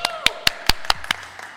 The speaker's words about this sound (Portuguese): Só eu me aplaudi.